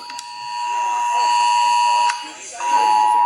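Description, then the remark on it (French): A phone's emergency alert tone, warning of a chlorine leak at a petrochemical site in an industrial zone near the Étang de Berre, blares steadily. It is a harsh, high, buzzing drone with layered overtones that dips briefly near the end before resuming, with faint voices murmuring underneath. “une sonnerie qui retentit”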